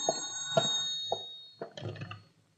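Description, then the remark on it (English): An old-fashioned telephone at the Blake gallery rings in a few metallic strikes with lingering overtones, followed by a brief clatter, at moderate volume with no talking; the call is for Police Captain Scott. “Yes, he's here. It's for you, Captain.”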